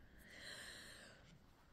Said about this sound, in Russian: Это у меня Зена храпит, не обращайте внимания. Она у нас храпит, как дед.